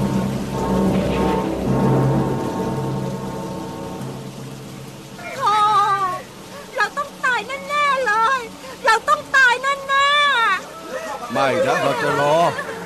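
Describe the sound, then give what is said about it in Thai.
Heavy rain and gusting storm wind roar loudly for about five seconds. The storm then fades to a low background as a voice begins speaking over it. “เสียงลมพายุพัดกระหน่ำรุนแรงยิ่งขึ้นเรื่อยๆต้นไม้อาคารหินผาและพื้นโลกต่างถูกพายุโหมพัดกระหน่ำพังพินาศท่ามกลางเสียงวีดวิวของพายุรายนั้น”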